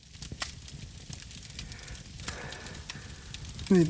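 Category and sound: sound effect, crackling campfire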